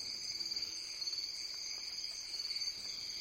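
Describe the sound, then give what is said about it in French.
A steady, shrill insect chorus drones continuously in high, layered bands, with soft pulsing in the loudness, as cicadas sing at night in a quiet setting. “Encore deux minutes, et le chant des cigales monte dans la nuit.”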